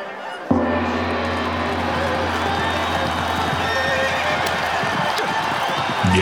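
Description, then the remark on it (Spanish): A horse whinnies over the steady clatter of hooves, a dense, continuous galloping sound that starts abruptly after a brief silence and stays loud throughout. “General Tian, ¿por qué su caballo no es tan bueno como antes?”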